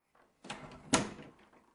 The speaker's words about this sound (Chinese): 就在这时，门砰的一声便关了回去。